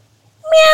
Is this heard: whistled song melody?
no